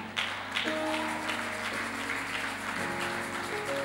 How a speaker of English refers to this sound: I hope somebody will clap for me.